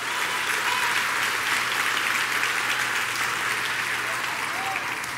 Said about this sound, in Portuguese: Pode dar uma salva de palmas aí? Ei!